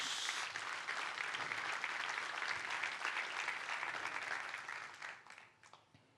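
An audience applauds God loudly, a dense, steady wash of many hands clapping for about five seconds before it thins out into a few scattered claps and fades.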